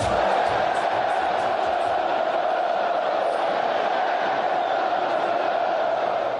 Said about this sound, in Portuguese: Flamengo vence o Bahia e torcida solta pela primeira vez o grito de é campeão.